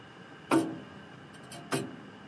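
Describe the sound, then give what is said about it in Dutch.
Two crisp, woody ticks of a pendulum clock, a little over a second apart, with a fainter click between them. “Ik zou eigenlijk graag de pendule stilzetten.”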